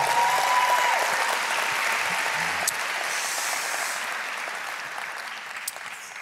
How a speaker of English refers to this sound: If you love Jesus, give him a hand clap right here in this place.